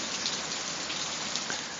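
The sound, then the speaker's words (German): Steady rain falls on hard surfaces in the Maldives, a dense, even hiss of countless drops with no pauses, moderately loud, with no voices. “Aber im Moment schaut es halt so aus, als wenn es sich eingeregnet hätte.”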